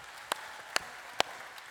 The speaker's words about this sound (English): Everybody who wants to say thank you, God, just clap or say yay or whatever you want to do.